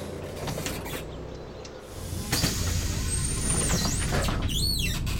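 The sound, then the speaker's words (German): A bus pulls up with a steady engine rumble, then a sharp hiss and high squealing tones as the brakes and sliding door work while a passenger boards, with no voices. “Als der Bus kommt, hört Eva beim Einsteigen”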